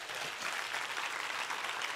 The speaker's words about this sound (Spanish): Si ese es el aplauso, vamos.